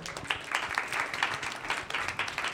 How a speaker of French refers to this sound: Donc vous pouvez l'applaudir.